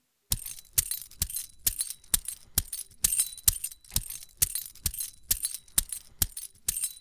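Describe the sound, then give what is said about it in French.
A bunch of keys jangles in a steady, even beat to keep tempo in a musique concrète demonstration, about two bright metallic shakes per second, fairly loud with quiet gaps between them and no voices. “Je vais commencer par mes clés et je vais les utiliser pour donner le tempo.”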